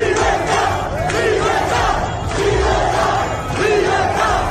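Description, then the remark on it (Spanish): Thousands of Cubans protesting in the streets of Cuba against the Castro regime led by President Miguel Díaz-Canel chant loudly and continuously, many voices rising and falling together in repeated rhythmic shouts over a dense background roar. “Miles de cubanos salieron a las calles de ese país para protestar contra el régimen castrista que encabeza el presidente Miguel Díaz Canel.”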